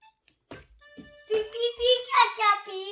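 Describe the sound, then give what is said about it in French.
A young child fusses and shouts in a loud, high-pitched, whiny voice, building into a sustained wail after a few soft bumps and breaths. “Tu arrêtes de crier de faire du bruit.”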